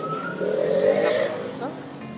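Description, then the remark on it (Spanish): A motorcycle passes by, its engine whine rising with a high, sustained tire squeal that swells mid-way and then fades over about two seconds. “está ahí pasando una moto con unos zapatos especiales.”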